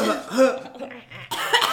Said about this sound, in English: Like, let me clear my throat. let me clear my throat. Oh my gosh.